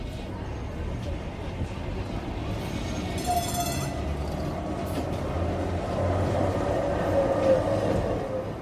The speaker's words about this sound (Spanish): A los pocos instantes, el tranvía pasó por un lugar donde las vías se hallaban en mal estado y el gran ruido me alivió de otro tango que tocaban ahora.